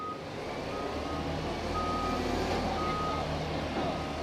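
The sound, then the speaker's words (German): A heavy 150-tonne mobile crane truck, brought to lift a special container over a zoo wall into the elephant house, reverses with its engine rumbling low and steady while a high, evenly spaced backup beep repeats over it. “Der 150 Tonnen Autokran, mit dem der Spezialcontainer über die Zoomauer in das Elefantenhaus gehoben also, wird, ist auch bereits da.”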